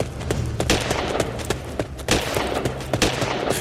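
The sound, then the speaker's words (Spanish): A burst of gunfire: several sharp, loud shots cracking at irregular intervals over a dense, noisy background, with no one talking. “Fui agachado esquivando disparos.”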